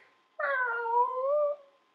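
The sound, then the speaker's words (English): A single drawn-out animal cry, somewhere between a cat's meow and a dog's whine, holding steady for about a second before trailing off. It is clear, with no talking. “Cat dog.”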